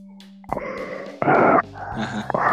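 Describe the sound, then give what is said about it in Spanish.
A voice imitates the greedy gulping of a very thirsty child drinking water, making a quick series of throaty swallowing grunts and gasps, loud, with no words spoken. “De esos cuando tienes demasiada sed. No, ¿saben cómo que trago?”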